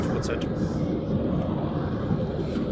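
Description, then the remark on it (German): A steady, loud low rumble of engine and road noise fills the inside of a moving car, continuous and unbroken throughout, with a faint hiss in the upper range. “das war es heute soweit aus dem Auto mit dem Zorcast Nummer 3”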